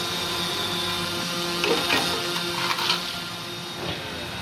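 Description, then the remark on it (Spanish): A drone's steady, high whirring buzz hums continuously at moderate volume as it approaches, with a few brief knocks and rustles partway through; no one speaks. “Mira, mira, ya se acerca, ya se acerca el, dron.”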